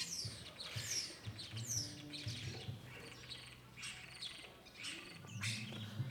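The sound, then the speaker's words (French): Shrill, high-pitched screaming calls of swifts sweep past repeatedly, overlapping with a busy chorus of other chirping birds and a low background hum, no voices. “Et puis il y a plein de martinets aussi.”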